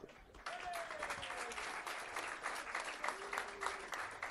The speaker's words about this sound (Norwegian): Uh, Applaus. Ja.